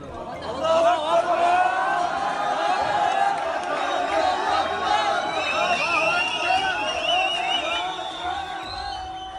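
A large crowd of protesters at a sit-in over the Al-Aqsa Mosque gates chants together loudly and steadily in unison, "No entry, no entry, Bab Hitta is still closed", the group shouting blending into a dense, continuous roar with no pauses.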